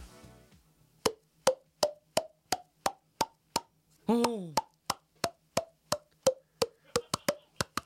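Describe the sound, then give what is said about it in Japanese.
Crisp mouth pops made by a person with distinct pitches step through the do-re-mi scale, one note after another at a steady pace. A brief vocal sound breaks in midway. “すごいいい音が鳴るねえそういった、まあ、口で音を鳴らすのがちょっと特技で、はい、そうですねもっと難しい曲もねあの弾こうと思えば弾けますんで”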